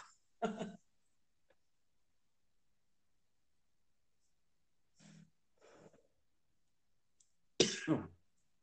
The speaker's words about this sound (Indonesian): Aduh, gue batuk, sorry.